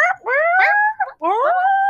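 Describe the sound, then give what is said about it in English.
A voice imitates guinea pig chattering with two loud, rising squeals, each climbing steadily in pitch and holding at the top, separated by a short break. No one speaks. “Oh, I missed you making the, the guinea pig noises.”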